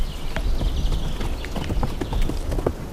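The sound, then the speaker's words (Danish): Horses' hooves clip-clop steadily on hard ground, an irregular patter of many hoofbeats as several horses draw near, with a faint rustle of movement and no talking. “Altså når vi er her, og øh, de her heste, de kommer hen og sådan er mm, tydeligvis observante over for os”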